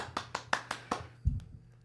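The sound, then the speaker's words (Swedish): At a Swedish awards gala, five sharp, evenly spaced hand claps in a steady rhythm, like a lone person applauding the first prize going to the men's national team, followed by a single low thump. No one speaks. “Förlåt, det får bli lite, lite det var för fina applåd.”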